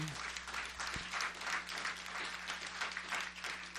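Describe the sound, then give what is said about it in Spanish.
A crowd applauds the Lord at an anniversary celebration, steady dense overlapping claps forming a continuous wash of sound that swells and dips slightly, along with a low steady hum underneath. “Vamos a dar un aplauso al Señor otra vez por esta gran,”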